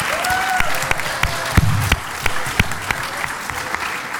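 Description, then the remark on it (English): A convention panel audience at a panel on lawyers and the 65th anniversary of Godzilla applauds steadily for a few seconds, a dense wash of clapping with sharper individual claps popping out, plus a brief high whistle early on. “Give him a round of applause, folks.”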